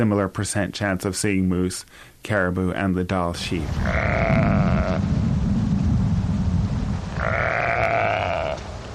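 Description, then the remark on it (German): Dall sheep in a park in Alaska grunt and bleat, a rapid run of harmonic calls at first, then two long wavering bleats over a steady rumbling background. “Die Dall-Schafe hatten es Charles Sheldon besonders angetan.”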